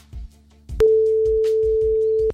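A single steady telephone ringback tone of an outgoing call to a prize game contestant hums for about a second and a half, clear, over a soft low pulsing beat, with no one speaking.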